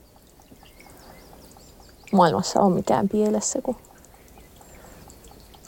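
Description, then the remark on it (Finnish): Faint birdsong chirps steadily in the background in the middle of a forest at sunset, while a person speaks for a couple of seconds in the middle. “linnut niin laulaa ja aurinko laskee ja jotenkin kaikki on niin lepposaa.”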